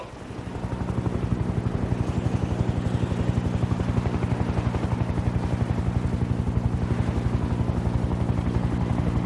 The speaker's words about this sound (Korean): 하늘에서 우르릉 소리가 들리기 시작했다. 먼 상공에 직승기, 즉 헬기 동체가 나타난 것이 보였다. 저기 직승기가 온다.